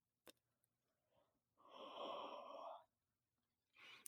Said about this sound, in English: yawning and then apparently whistling through my throat. Fight me. It sounded like you were going through a tunnel.